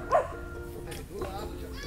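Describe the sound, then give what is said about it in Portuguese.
Dogs bark in short bursts, a sharp bark near the start and a softer one later, over a low background hum with faint voices. “Esses aí estão latindo ali.”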